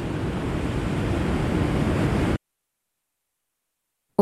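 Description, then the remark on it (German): A loud, steady roar of water from a new pastel-green glacial lake at the source of the Rhone, cascading over a rock barrier, fills the first two seconds, continuous, then cuts abruptly to silence before a brief burst at the very end. “Das Wasser aus dem See stürzt über den Fels hinunter.”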